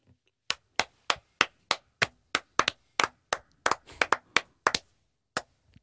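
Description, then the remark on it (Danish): A single person claps about sixteen times at a steady, brisk pace. The sharp, crisp claps briefly bunch together near the end, with no talking underneath. “Hvorfor klapper du ikke mere end det?”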